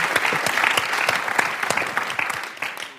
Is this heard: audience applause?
yes